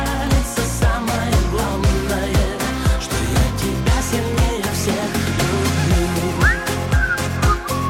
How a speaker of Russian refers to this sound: Сейчас бы в аэропорт под этот свист